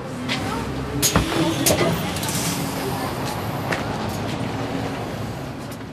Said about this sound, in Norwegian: Og akkurat nå er vi på bussen på vei til spillkollektivet Work Work, som ligger i Trondheim sentrum.